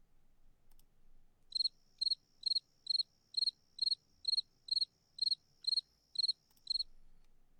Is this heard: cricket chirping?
yes